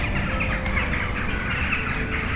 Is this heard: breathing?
no